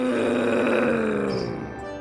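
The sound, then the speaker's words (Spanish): A deep, loud monster growl rumbles for about two seconds, a single sustained snarl whose pitch slowly sinks as it fades slightly, with no talking. “Ahora que el monstruo estaba parado muy cerca de él, este volvió a gruñir.”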